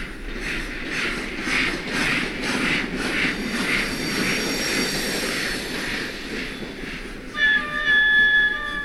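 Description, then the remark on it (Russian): A steam locomotive rumbles steadily, its rhythmic chuffing pulsing over a deep, continuous roar, then a loud, shrill whistle cuts in near the end, heard by visitors at an exhibit showing a period railway carriage. “Возможность не только посмотреть, как выглядел железнодорожный вагон того времени, но и услышать гул паровоза.”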